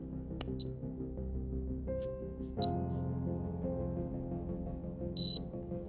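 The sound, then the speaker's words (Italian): An electronic keyboard, switched on while the space bar is held down, gives short, high-pitched beeps as it connects in table-receiving mode for loading a font: two quick chirps a couple of seconds apart, then a longer beep, over a steady low electronic hum, with no talking. “È successo che la tastiera si è collegata in modalità appunto di ricezione della tabella.”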